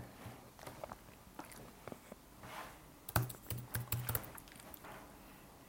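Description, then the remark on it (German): Rapid keystrokes clatter on a computer keyboard as someone types a Google search, an irregular burst of typing that grows denser and louder midway, then tapers off into quiet. “Okay, wir googeln das einfach mal.”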